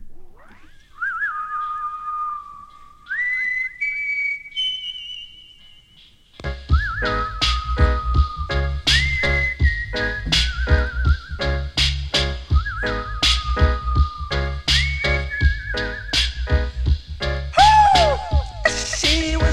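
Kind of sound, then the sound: music track played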